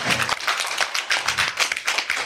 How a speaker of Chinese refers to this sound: 给他的爱心热烈掌声鼓励一下。